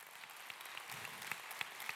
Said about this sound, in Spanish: Dile un fuerte amén y dale un aplauso al Señor.